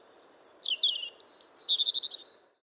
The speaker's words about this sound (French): Et comme dirait notre Robin européen, si, si, piu, piu, piu, facile, je te l'ai bien dit.